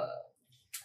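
A brief voiced sound fades out, followed by a short pause and then a sharp, close-up click of a computer keyboard key, with a fainter tap just before it.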